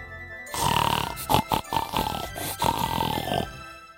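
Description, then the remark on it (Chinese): A run of rough, snorty pig grunts, several quick pulses blurring together over about three seconds, fairly loud and alone with no talking. “哼哼哼哼哼。小猪好想荡秋千呐，谁来帮助小猪呢？”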